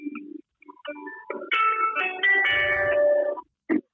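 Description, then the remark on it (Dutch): A phone's melodic ringtone plays a short tune of bright electronic notes that swells into a loud, sustained chiming passage, followed by two brief bursts at the end, with no talking. “Oh, is mijn telefoon. Oh, nog een telefoon.”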